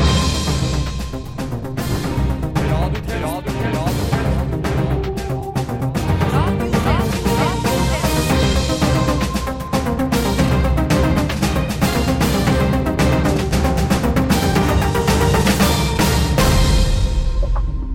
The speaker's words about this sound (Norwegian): Nå spiller vi kjenningsmelodien, er det greit?